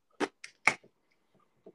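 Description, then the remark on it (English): A can of porter beer is cracked open: a few sharp metallic clicks and a short fizzy pop, followed by a couple of faint small knocks, with no voices. “Hear that, yeah, that was mm-hmm. a big daddy clap.”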